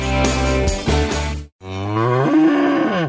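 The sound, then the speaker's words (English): Two long, loud cow moos sound one after another with a brief pause between, each deep and droning with a rising, bending pitch toward the end. “This is a cow, a cow whose milk became everyone's favorite cheese at the craft fair.”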